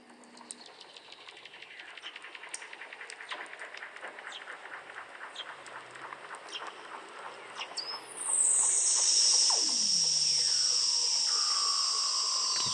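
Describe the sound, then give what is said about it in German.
Eerie seal calls: a steady train of clicking pulses gives way to loud, swooping whistles that glide downward, with a high sustained tone ringing over the end. No one talks. “Das klingt wie ein krasser Science-Fiction-Film. Das sind die Geräusche von den Robben.”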